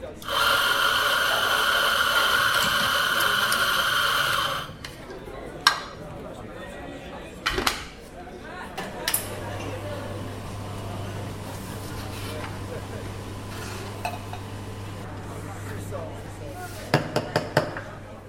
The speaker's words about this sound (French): C'est parce qu'au-delà du bruit des tasses qui s'entrechoquent et de la voix tonitruante de la patronne qui lance des injonctions à ses serveurs, la machine à expresso fait elle aussi pas mal de boucans.